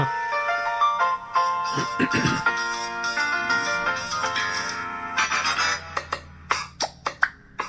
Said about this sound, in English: I think in the television talk theme is the theme from The Odd Couple. I pretty sure I put it in there.